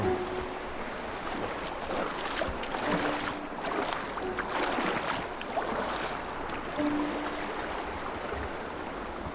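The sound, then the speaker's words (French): Footsteps wade upstream through a shallow river, splashing and sloshing in an uneven rhythm over steady rushing water. No one speaks. “on, est en train de remonter la rivière”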